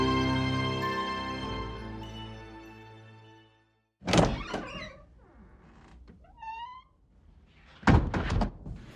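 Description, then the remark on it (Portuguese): A sustained droning tone fades out, then someone trying to open a house door forcefully rattles and thumps it twice, loud, with a short squeaky creak between the attempts. “E é aquilo, não olhe para trás, porque vão tentar abrir a porta da sua casa agora.”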